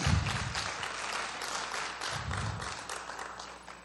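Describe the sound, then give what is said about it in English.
An audience breaks into sustained applause, a dense crackle of many hands clapping at once, steady and fairly loud throughout with no voices standing out. “Can we give him a better round of applause?”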